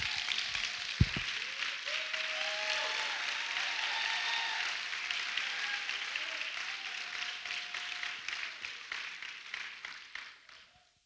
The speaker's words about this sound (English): Somebody clap your hands real loud.